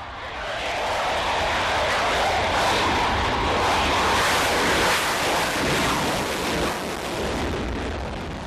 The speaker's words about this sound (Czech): Dva gripeny s úkolem dostihnout neznámé letadlo právě startují.